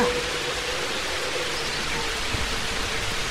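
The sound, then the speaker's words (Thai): Heavy rain pours down steadily in a forest during an evening thunderstorm with strong wind, a dense, even hiss filling the whole clip at a constant loudness with no voices. “แล้วก็มีเสียงฝนตกอยู่ครู่หนึ่ง ฟ้าแลบแปลาบทำให้เกิดแสงไฟสีขาววิ่งพ่านไปทั่วทั้งท้องฟ้าสีดำนั้น ในที่สุดฝนก็ตกกระหน่ำลงสู่พื้นดินราวกับฟ้ารั่ว”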